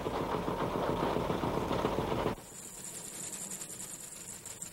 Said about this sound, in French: Ce qui les annonçait, c'était le bruit. Oui, 250 voitures qui roulent dans Paris la nuit tombée, le 6 septembre 1914, cela s'entend. On les entend venir de loin, surtout quand il s'agit de 250 taxis.